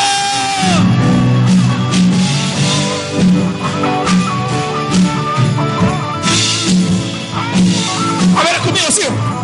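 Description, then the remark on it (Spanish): A large crowd shouts and cheers together in a loud, sustained burst of jubilant yelling and whooping that fills the space for several seconds, with voices rising and overlapping throughout. “Solo faltó el grito de júbilo.”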